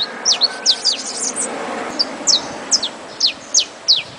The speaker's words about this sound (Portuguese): Além desse canto agudo, melodioso, a beleza da plumagem amarela fez do canário da terra um dos dez passarinhos mais engaiolados do Brasil.